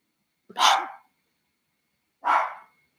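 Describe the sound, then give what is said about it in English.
Two loud, sharp dog barks ring out alone, separated by a pause of more than a second, each a short harsh burst that fades quickly, with silence all around. “He's talking about the dog food.”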